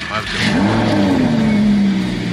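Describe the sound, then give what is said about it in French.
A car engine is started by holding the brake, lifting a small red tab and pressing, then rises in pitch as it revs up and holds a steady, droning whine for a couple of seconds, with a faint rumble beneath. “t'appuies sur le frein et t'appuies sur le. Je les mets n'importe où là.”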